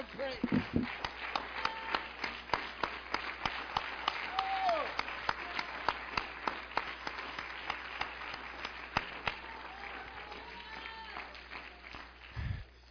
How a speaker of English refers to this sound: I'll oh, give him a hand clap.